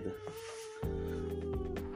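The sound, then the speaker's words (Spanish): A female cat lets out a long, drawn-out complaining meow that swells louder and harsher partway through, sustained for a couple of seconds with no talking. “Ahora sí, no tengo hijos, pero tengo una gata. Que está pesadísima.”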